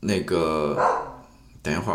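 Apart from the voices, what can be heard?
dog barking outside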